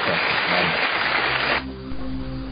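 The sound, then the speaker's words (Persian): A dense burst of crowd applause fills the first second and a half, then cuts off abruptly, leaving a quieter low tonal hum behind. “آقای دکتر رو تشویق بفرمایید ممنونم”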